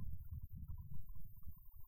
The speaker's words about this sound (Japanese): そして今なんかあの、雷のような音が聞こえてきました。